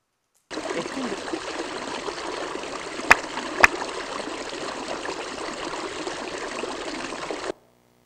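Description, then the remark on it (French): Steady flowing stream water, a continuous babbling rush that stays even throughout, with two brief sharp clicks near the middle and no voices. “Alors vous allez pouvoir en écouter quelques-unes. Le cours d'eau”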